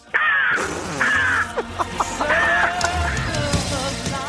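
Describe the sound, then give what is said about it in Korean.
A woman in her early 30s imitates a crow on Park Myung-soo's Radio Show, giving three loud, harsh, drawn-out caws separated by short clipped squawks, with no speech. “30대 초반의 여성분이 까마귀 소리 들어보겠습니다.”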